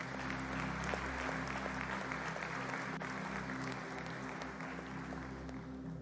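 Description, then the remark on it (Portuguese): A church audience claps steadily for about six seconds to welcome first-time visitors, a dense, even wash of applause with a low hum running underneath throughout. “Enquanto isso, igreja, dê uma salva de palmas recebendo a esses queridos.”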